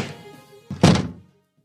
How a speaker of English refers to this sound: He makes his way to the kitchen, opening and closing the cabinet doors.